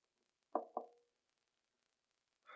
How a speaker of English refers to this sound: I'm, standing at the door and I'm knocking.